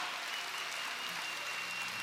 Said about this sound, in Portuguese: Aleluia! Aleluia! Aplauda! Aplauda o seu Deus.